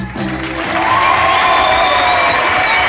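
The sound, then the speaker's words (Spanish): Steady, dense applause included in a song recording swells up after a brief lead-in and holds loud throughout, mixed with crowd cheering and a few sustained shouts or whistles riding above the clapping. “Aplausos incluidos a huevo en la pinche rola.”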